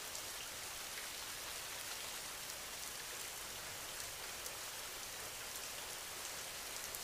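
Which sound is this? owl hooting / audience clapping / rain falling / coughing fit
rain falling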